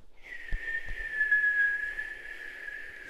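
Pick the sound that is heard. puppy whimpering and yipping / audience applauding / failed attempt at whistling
failed attempt at whistling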